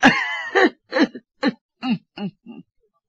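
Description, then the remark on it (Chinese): A male narrator telling a story imitates a masked man's fit of coughing: one long raspy hack, then six shorter, evenly spaced coughs that grow steadily fainter and trail off into silence. “蒙面人咳嗽了一阵”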